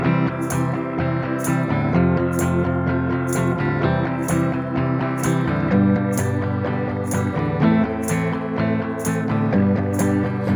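A Swedish pop song plays loud, with a steady, driving beat, crisp regularly spaced percussion hits and layered instruments sustained throughout; no voices stand out.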